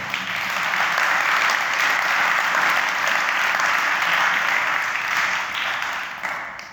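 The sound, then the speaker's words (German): Sustained applause from an audience for the prayer team, a dense steady wash of many hands clapping, holding loud for several seconds before tapering slightly at the end. “Applaus fürs Gebetsteam übrigens jetzt an der Stelle.”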